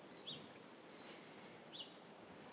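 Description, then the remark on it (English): A few faint, high-pitched chirps from small birds twittering in a small park come at scattered intervals over a soft outdoor hiss, with a brief sharp click near the end and no talking. “listening to the birds twittering. They love this little park.”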